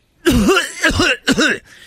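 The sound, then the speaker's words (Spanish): Three loud, close coughing bursts in quick succession, voiced and throaty, as if a person is imitating a cough, with the last two coming closer together. “el otro ya estaba tosiendo ahí, ¿eh?”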